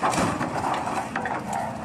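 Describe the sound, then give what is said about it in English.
A car being crushed: a steady, loud grinding roar of machinery with scattered sharp crunches and creaks of buckling metal throughout, no voices. “getting crushed. It's not a very magnetic car.”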